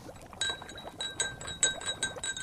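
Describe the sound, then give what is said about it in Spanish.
A spoon repeatedly clinks against the inside of a glass while stirring water with a small spoonful of oil added, a quick irregular series of bright ringing taps with faint sloshing underneath, moderately quiet. “Pero, profe, llevo rato revolviendo el agua y sigo viendo el aceite.”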